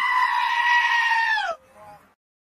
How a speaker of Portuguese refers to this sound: Pô, essa vinhetinha aqui é muito boa, irmão. Eu me amarro nesse bode berrador aqui, cara. Tipo assim, que momento para você filmar o bode? Caralho aí. O bode tem, um, tem uma corda vocal melhor que muita gente aí, hein?